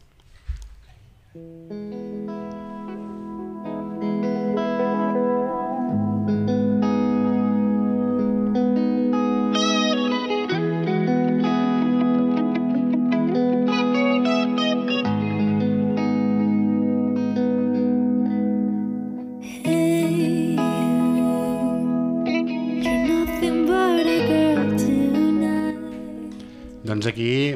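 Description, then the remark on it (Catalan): A calm, intimate song with a female voice singing over a sustained, reverb-washed accompaniment, holding a steady moderate level throughout. “mantens una mica el, el to intimista, ens seguim movent una mica en aquestes aigües més tranquil·les, però sí que ja hi ha com un bri d'esperança, no?”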